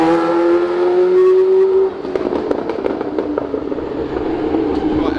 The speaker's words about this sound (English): You can see the F1 roaring by.